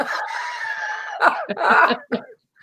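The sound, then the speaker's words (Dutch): A long, strained, crowing-like vocal tone gives way to three or four harsh coughs in quick succession, loud and raspy, with no talking. “Ik eh, moet, het eh, moet ik hoesten.”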